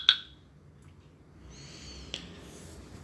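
A bright, short WhatsApp-style notification ping sounds at the very start, followed about two seconds later by a fainter brief blip, with only a low steady background hum and no talking.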